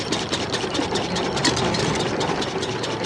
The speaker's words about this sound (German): Der Wagen ohne Pferd setzt sich ruckelnd und schaukelnd in Bewegung, wie von Geisterhand geschoben. Es ist der nicht ganz stille Start der ersten Fernfahrt in der Geschichte der motorisierten Mobilität.